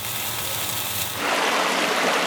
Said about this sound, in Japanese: あなたもこんな音で癒されてみませんかステーキを焼く音